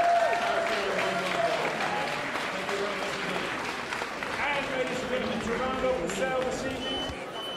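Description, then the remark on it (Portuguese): A dense crowd at the auction where Banksy's painting Girl with Balloon was sold and suddenly shredded erupts in shock, a loud, sustained wave of clapping and overlapping exclamations, with many voices murmuring and calling out together throughout. “O que acabaram de ouvir foi o choque das pessoas que estavam a participar no leilão da Softbiz, onde foi vendido e repentinamente desfeito o quadro A Menina e o Balão de Banksy.”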